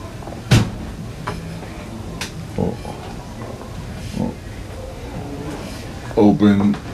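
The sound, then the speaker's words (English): A room door creaks with a sharp knock followed by a few short, groaning squeaks, ending in a longer, louder drawn-out creak. “I think my room door is freaking.”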